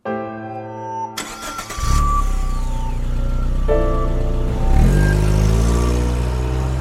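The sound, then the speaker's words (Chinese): A car engine cranks and catches, its loud low drone climbing in pitch as it revs, holding steady, then rising again as the car pulls away to drive to a hospital. No one speaks. “我驾车直奔到医院时”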